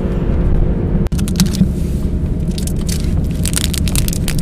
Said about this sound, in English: Crinkling this butterfinger. Don't crinkle it near the.